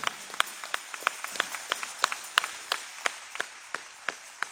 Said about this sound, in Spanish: ¿Cuántos estuvieron en la marcha? Levanten su mano. En un aplauso a Jesús por ese día, esa noche de gloria,